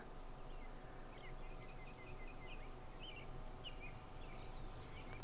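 Faint birdsong, a scattering of small chirps and short warbling phrases repeating throughout, over a steady outdoor background hush with no one talking.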